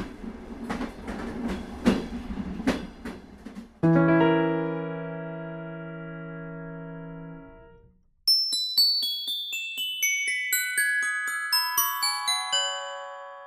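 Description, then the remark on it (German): An approaching train clatters along vibrating rails in a quick rhythmic clack, then sounds a long, loud, steady horn chord that fades out, followed by a cascade of bright chiming tones. “Der Zug kommt, der Zug kommt, schnell, wir müssen etwas tun. Das Tuten wird immer lauter. Die Schienen beginnen zu vibrieren.”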